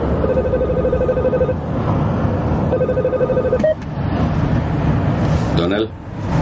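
A phone rings for a repeated incoming call in a car travelling along a motorway: two long warbling ring bursts separated by a short pause, heard over a steady low rumble like a car interior, followed by a few clicks.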